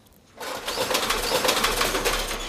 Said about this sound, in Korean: 셔터문 닫았네요. 셔터문 내렸어요. 예. 이 셔터문 내린 소리 들리면 어떤 노래에서 들었어요 하고 가수 이름이나 노래 제목을 보내주시는 겁니다.